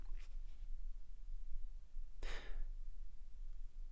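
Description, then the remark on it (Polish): Book pages being flipped while searching for a quotation from Marcel Proust: two faint papery flicks at the start, then one clearer, louder rustling swish midway, with quiet room tone between and no one speaking. “Mam nadzieję, że będzie słychać, jak szukam.”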